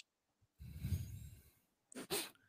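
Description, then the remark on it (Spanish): A voice imitates a tiny, hamster-like sneeze: a breathy snuffling inhale, then a quick pair of sharp little bursts. No one speaks. “es, un... estornudo de hámster. Chiquita nomás, sí.”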